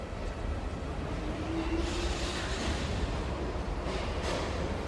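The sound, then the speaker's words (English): Steady rumble of a moving city train heading toward Wynyard, heard from inside a carriage, with continuous low-end roar, rattling, and a faint rising whine of wheels partway through; no voices. “A man is sitting opposite me on the train.”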